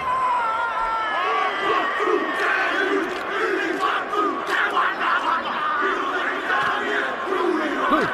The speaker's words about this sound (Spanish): Todo el legendario haka o haka, esa danza ritual, una especie de grito de guerra que proviene de la tradición de la cultura maorí y que el equipo nacional de rugby de Nueva Zelanda, los All Blacks, eh, practican antes de cada partido